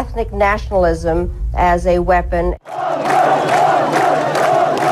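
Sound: crowd chanting a name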